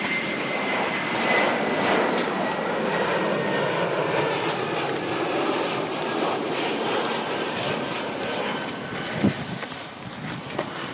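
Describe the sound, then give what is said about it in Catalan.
A steady, loud roar of airplane engines as planes fly over the Llobregat delta, arriving at El Prat airport; a broad continuous rumble with a faint whine on top, sustained for the whole stretch with no voices. “a punt d'arribar al delta del Llobregat, amb els avions sobrevolant, arribant al Prat.”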